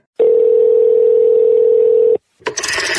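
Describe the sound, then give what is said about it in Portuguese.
A telephone ringing: one steady, unbroken electronic tone lasting about two seconds, loud, followed by a short pause and a burst of rough, noisy clatter. “Ei, alguém atende o telefone?”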